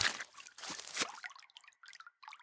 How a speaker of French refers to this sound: Des rails de chemin de fer jonchaient le sol et sur le côté de la galerie coulait un petit ruisseau.